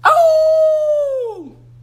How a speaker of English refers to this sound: Quite soon, wolves began to howl.